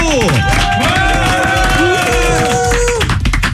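Applause and cheering in a studio, a steady, loud wash of clapping blended with whooping voices and swooping, siren-like tones, lasting a few seconds without letting up.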